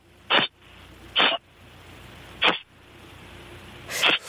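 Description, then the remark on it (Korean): A person mimics a beer can being cracked open with their mouth, making four short, breathy hissing bursts at uneven intervals, fairly loud, with no talking. “맥주 캔 따는 소리입니다. 맥주 캔.”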